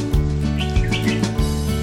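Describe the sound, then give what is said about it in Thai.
Short, high bird chirps flutter in quick bursts over a steady, rhythmic low thumping that repeats roughly every half second, with no voices present. “นกอะไรมาเกาะที่นั่นแน่”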